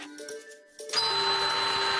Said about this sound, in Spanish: Uy, la Virgen, tiene el timbre cascaete, ¿eh? Cariño, porque no llama un electricista.